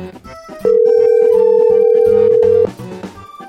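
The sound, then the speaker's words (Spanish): A telephone ringing tone sounds once as a single loud, steady two-second beep while a call to an appliance delivery man waits to be answered, with quieter music playing underneath before and after. “Tenemos el teléfono a este vato.”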